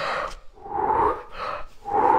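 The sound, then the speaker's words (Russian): A voice imitates deep breathing, as when told to look ahead and breathe deeply during an X-ray: a few slow, airy inhales and exhales in close succession, fairly loud, with no talking in between. “смотреть вперед, глубоко дышать.”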